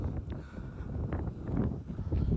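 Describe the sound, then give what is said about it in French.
Steady, loud wind buffets the microphone outdoors, a continuous low rumbling roar with gusty surges that fills the whole stretch without any clear voices. “Ah, il y a, peut-être un peu de vent.”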